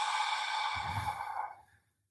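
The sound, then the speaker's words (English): A long, slow exhale as part of a calming breathing exercise, breathy and steady for about a second and a half, then tapering off into silence. No talking. “So breathe through the nose. Nice long, slow exhale”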